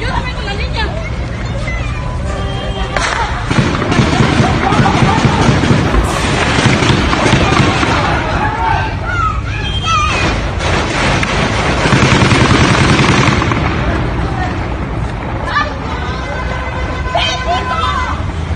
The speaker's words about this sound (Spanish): métanse aquí a esta casa porque se oyen los, los disparos súper cerca.